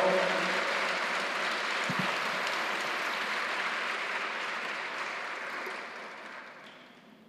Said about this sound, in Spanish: Dale una ofrenda de palmas al rey, por favor.